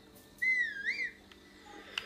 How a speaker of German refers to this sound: Und ich kann es von überall herberufen, wegen der Rüstung. Wir testen es direkt mal. Geh mal nach da hinten, nach da hinten, nach da hinten, nach da hinten. Jetzt pfeife ich.